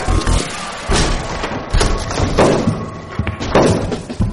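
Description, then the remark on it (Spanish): A door is broken down on command with a series of loud, heavy thuds and crashing impacts, about four blows at irregular intervals, with faint voices in the background. “abajo la puerta, ahora.”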